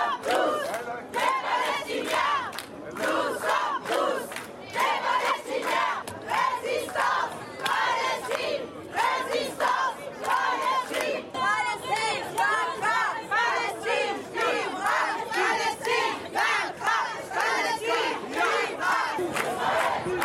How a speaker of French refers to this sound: À Marseille, hier, on va écouter les slogans qui étaient chantés dans la rue.